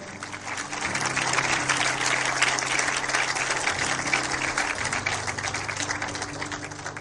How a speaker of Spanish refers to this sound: Puede tomar su asiento y le doy un aplauso al Señor en esta mañana. Pero denle ese aplauso más fuerte, por favor.